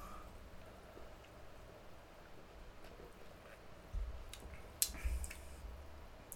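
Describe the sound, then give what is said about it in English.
Several drinks are poured together into one glass, a soft continuous splashing trickle that swells into a few louder splashes and knocks near the end, with no one speaking. “Should we pour them all together and see how they taste?”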